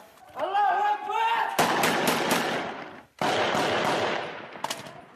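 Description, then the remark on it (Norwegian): A man shouts briefly, then Kalashnikov rifle fire from the war in Syria erupts in loud, rapid automatic bursts, two long sustained volleys separated by a short pause. “Det mest brukte våpenet er fortsatt Kalasjnikov.”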